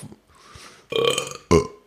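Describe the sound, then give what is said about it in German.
A loud, drawn-out burp rumbles, followed by a second short, forceful burp after a brief pause, with a faint airy breath before them. “Rülpsen.”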